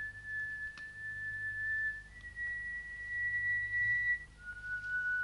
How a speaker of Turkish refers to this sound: Duyuyor musunuz flütün sesini? Evet. Buzlu dağlar ilk duvar. Flüt onu devirecek. Düşman ikinci duvar. Flüt onu da devirecek. Siz kendiniz üçüncü duvar. Flüt sizi de devirecek. Flütün sesini gerçekten duyuyorum.